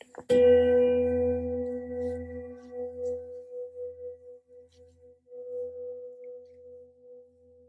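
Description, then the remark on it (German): The second of a series of gong strokes: a single stroke with a sharp attack, then a long, steady ringing tone whose low hum pulses and wavers as it slowly fades. No voices. “Beim zweiten Gong lasse ich diese Qualität in meine Ausstrahlung um mich herum schwingen, in meinen Alltag und in meine Zukunft.”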